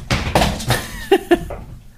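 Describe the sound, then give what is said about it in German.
A dog squeezes in and knocks a water bottle over; it clatters to the floor in a quick series of hollow thuds and bounces, the last two knocks sharp and distinct before it settles into quiet. “Der Hund hat sich hier gerade reingepresst und die Wasserflasche runtergeworfen.”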